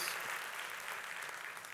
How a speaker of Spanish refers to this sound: Vamos, alguien dele un fuerte aplauso al Señor.